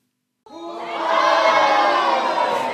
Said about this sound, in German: Mit großem Jubel wird Irmengard auf der Fraueninsel empfangen.